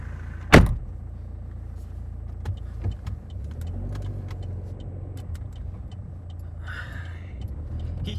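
Steady low engine rumble from inside a car, opening with a sharp door-like thump, then a droning motor running on with scattered small clicks and a brief whooshing noise near the end.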